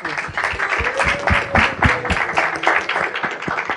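A steady patter of many hands clapping, dense and continuous throughout, with a faint murmur of voices mixed in beneath the applause.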